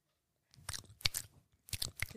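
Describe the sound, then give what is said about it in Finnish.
Wet mouth-smacking while chewing blue cheese in quick irregular bursts, loud, with brief pauses between clusters of smacks and no talking. “Mutta siis maiskuttelu on jotain semmoista.”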